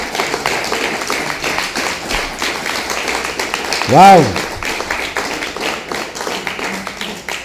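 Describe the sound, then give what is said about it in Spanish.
An audience at a Bible reading bursts into steady, sustained applause for the father, a dense crackle of many hands clapping throughout, with a single voice calling out an exclamation partway through. “¿No merece un aplauso para el papá?”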